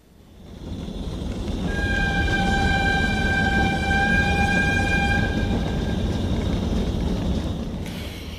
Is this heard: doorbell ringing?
no